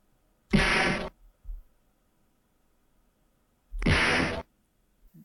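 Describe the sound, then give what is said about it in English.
Two loud, punchy impact sound effects from a fighting video game, a punch or kick landing, separated by a few seconds of near silence with faint soft thumps between them. “That is a sound of a punch or kick landing in Street Fighter 2.”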